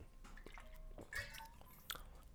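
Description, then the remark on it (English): A quiet sip of water: soft wet slurping and a gulp or two, with small clicks of the mouth and a brief louder swallow near the end, no talking. “Let me get some water real quick.”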